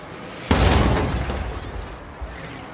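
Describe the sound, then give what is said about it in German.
A single loud crash as a camera robot, flung four metres through the air by a vehicle, slams into a house wall, bursting with a shattering, glassy spray as its lens cracks, ringing out and slowly fading, with a faint clatter near the end. “Doch der Kamerabot hat keine Chance, und schon das nächste Fahrzeug erwischt ihn und schleudert ihn vier Meter durch die Luft, wo er an eine Hauswand knallt.”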